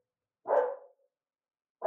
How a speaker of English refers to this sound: Do you hear the dog? Do you hear the barking? Yeah, yeah, yeah. I heard the barking. Yeah.